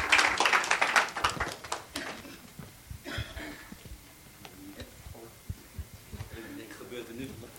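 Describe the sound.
An audience breaks into applause: a dense burst of clapping for about two seconds, then it thins out into scattered, irregular claps with faint voices underneath.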